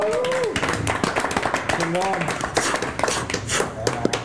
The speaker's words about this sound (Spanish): No, no, no, no, ya tuvimos muchos cuetes ah, feria de Purísima, gracias. Disculpen, eh, hay feria en Purísima, si es que si se escuchan los cohetes,